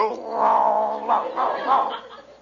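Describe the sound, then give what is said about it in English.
A man down on all fours imitates a dog's growl: a drawn-out, raspy vocal snarl lasting a couple of seconds, rising and falling in a few strained surges, fairly loud. “He growls, so I'll growl.”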